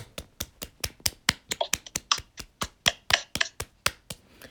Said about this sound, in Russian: Ладно, сделай аплодисмент.